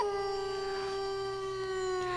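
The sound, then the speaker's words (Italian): A wolf standing in road traffic near San Pietro Clarenza, Catania, Italy, gives a single long, steady howl that holds one clear tone and drifts slowly downward in pitch, loud, filling the whole moment with no talking. “Eccolo, si tratta di un lupo di mala coscienza che sta fermo qua al traffico.”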